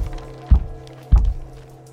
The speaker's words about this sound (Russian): Если старушка почувствует опасность, она трижды постучит в пол. И вот Дождливым вечером 21 декабря 1908 года, заворачивая рождественские подарки, Адамсы услышали сверху три удара.